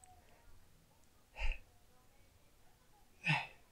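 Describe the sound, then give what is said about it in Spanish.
Two sharp, explosive sneezes about two seconds apart, loud, each a quick burst that stands out against a quiet background with no talking. “Yo estornudo mucho.”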